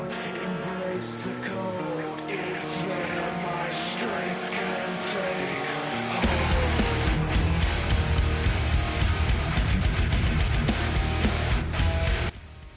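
Loud metalcore music by a band from England: a layered melodic passage that crashes midway into a heavier, denser section with thick distorted low end and pounding drums, then cuts off abruptly near the end.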